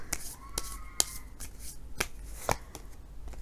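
Tarot cards are shuffled and drawn for a Taurus love reading, turning up The World card: a run of crisp papery snaps and flicks at an uneven rhythm over a soft rustling bed, with no talking.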